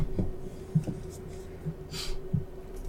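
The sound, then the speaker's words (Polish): Quiet handling of papers: a few soft low bumps and taps, then one brief crisp rustle as a sheet is moved, with no talking. “otworzyliście te, e, te papiery.”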